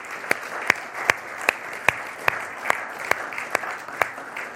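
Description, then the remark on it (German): Steady, evenly paced clapping applauding the makers of a creative video, about a dozen sharp claps in a slow rhythm, moderately loud, with no voices. “Wir haben zum Einstieg ja ein kreatives Video gesehen, da kann man, denke ich mal, applaudieren für die Leute, die das machen.”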